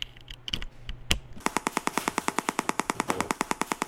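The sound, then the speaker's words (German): A measuring device renders as sound the radiation of a Wi-Fi hotspot briefly activated on a laptop: after a few scattered crackles, a steady, rapid train of sharp buzzing clicks starts, about ten per second, loud, with no voices. “packt Mario Babylon ein Messgerät aus, aktiviert am Laptop kurzfristig einen WLAN-Hotspot und macht die Strahlung, die er spürt, hörbar”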